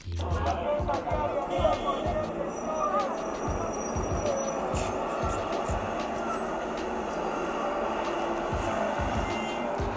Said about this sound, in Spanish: El sonido de los autos, el sonido de los buses, personas pasando, el aire llegando a tu cara